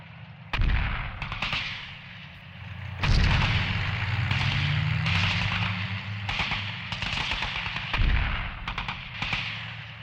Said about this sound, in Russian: На большой скорости Т-60 маневрировали и давили этих проклятых фрицев. Пушка работала, пулемет работал, и гусеницы работали.